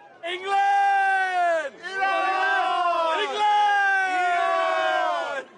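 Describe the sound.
A football stadium crowd at a tournament match in Doha roars and cheers loudly and continuously, the massed voices swelling with wavering, sliding tones and dipping briefly a couple of times before surging again.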